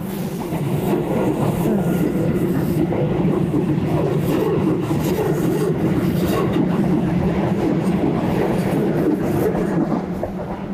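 An electric train rumbles past, a loud, steady low roar with rattling wheel noise that holds for the whole stretch and eases slightly at the end. No one speaks.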